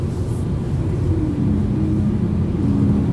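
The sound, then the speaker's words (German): Steady low rumble of a car driving downhill over a grooved road surface toward Kassel, Germany, 14 km away, with a constant dense drone and faint higher hiss, heard from inside with no voices. “Vielleicht hört ihr, wie sich der Untergrund irgendwie auf die Fahrgeräusche auswirkt, weil hier sind so Rillen in der Straße klingt gerade, als wenn jemand singen würde.”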